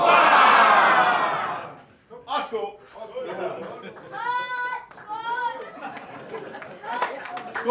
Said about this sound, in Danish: Og øh, jeg synes også, at vi skal slutte af med tre korte og et langt hurra for Humlebækhallen. Humlebækhallen, længe leve! Hurra! Hurra! Hurra!